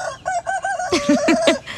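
A rooster crows loud in a quick run of short, chopped calls, with a few deeper clucking bursts toward the end and no one talking.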